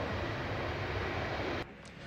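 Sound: airplane engine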